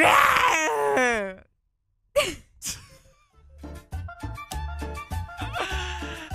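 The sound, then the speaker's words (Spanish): A person imitates a lion's roar with a loud, strained, falling vocal growl lasting about a second. A short silence follows, then sharp breathy bursts and choppy voiced sounds. “A ver, tírate un rugido de león.”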